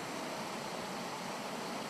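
water gushing out

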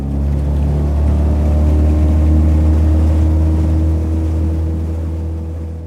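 motorboat engine running

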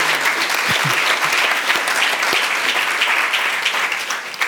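audience applause

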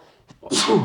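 sneeze

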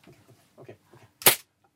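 gunshot

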